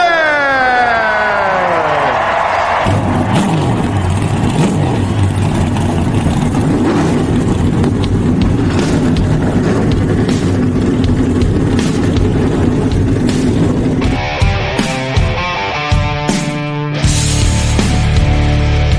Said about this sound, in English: Driver! start your engine.